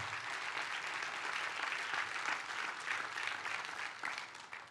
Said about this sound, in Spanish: Dele un fuerte aplauso.